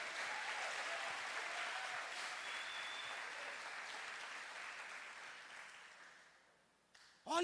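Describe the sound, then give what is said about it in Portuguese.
An audience applauds in praise of God in a dense, sustained wash of clapping that gradually thins and fades over several seconds, ending with a brief voice starting to speak. “Você pode glorificar o nome do Senhor, aplaudir a Ele por isso.”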